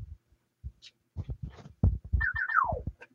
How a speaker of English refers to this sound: Sorry, that was my phone.